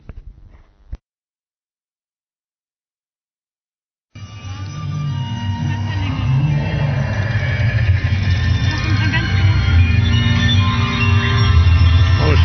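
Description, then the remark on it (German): After a brief pause, a loud, continuous onboard recording of a theme park dark ride begins: a steady low mechanical rumble of a moving ride vehicle layered with busy, overlapping tones, unbroken to the end. “Was aber sicher ist, ist, dass ihr jetzt die Audio Audioaufnahme aus Symbolika hören werdet.”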